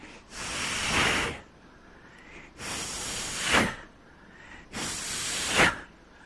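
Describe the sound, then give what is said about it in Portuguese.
A person makes three slow, breathy exhalations in an even rhythm, each a soft airy rush lasting about a second, imitating breathing as a way of pronouncing the Hebrew letters yod, he, vav, he. Fairly quiet, with no talking. “Estas letras aqui formam aqui o que seria uma espécie de respiração.”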